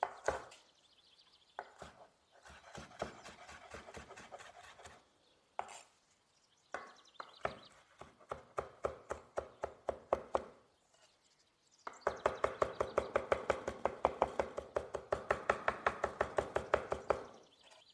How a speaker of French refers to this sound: Quand j'ai fini d'effeuiller mon bouquet, j'ai environ une poignée de feuilles de basilic qu'il me reste. Je vais la hacher au couteau sur ma planche.